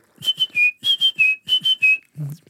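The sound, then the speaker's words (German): A person whistles a rhythmic bird-like call, short bright notes in repeated groups of two or three, imitating a tit's song, fairly loud, ending with a soft low murmur. “ich weiß auf jeden Fall, dass dieses, genau, das wollte ich gerade erzählen, weil es mein, mein Opa hat immer dann, wenn wir diese Meisen gehört haben, das ist immer dann.”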